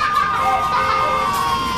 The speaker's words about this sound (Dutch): sirenes die luiden.